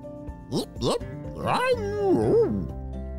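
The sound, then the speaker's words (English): A voice imitates a small dog, the pup Peppy, barking as he licks a sandy face on a sand beach: two quick, high yips followed by a longer, wavering yelp-like sound, moderately loud. “barked Peppy as he took a big lick at Isaac's sandy face.”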